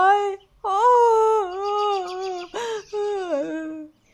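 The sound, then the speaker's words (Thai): A puppy cries and whimpers in long, high, wavering whines, three or four drawn-out cries broken by a brief raspy yelp, fairly loud and on its own. “แล้วติ๊กตอกก็ได้ร้องไห้ น้ำตานั้นไหลพราก”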